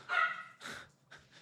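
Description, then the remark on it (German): A dog barks three times in quick succession, the first bark longest and strongest with a harmonic, slightly whiny tone, followed by two shorter, softer barks. “Das ist der Hund.”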